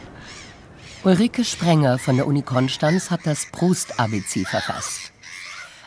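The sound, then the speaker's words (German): Gulls screech a few times in the background, thin, over Lake Constance (Bodensee), heard from a hotel terrace on the water in Konstanz, while a person speaks steadily in the foreground over an open outdoor ambience. “Wir hören die Möwen schreien”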